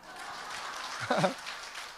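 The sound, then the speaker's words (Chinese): An audience applauds with a steady, fairly soft wash of clapping that lasts the whole two seconds, briefly joined partway through by a short voiced sound like a laugh or call. “我是奥斯卡毕业的，没有人给掌声鼓励吗？”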